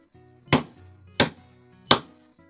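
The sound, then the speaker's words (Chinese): Three heavy, evenly spaced knocks on a door from outside a house, each a sharp thud with a short ringing decay, over a faint low hum and no voices. “这时，屋外传来一阵重重的敲门声”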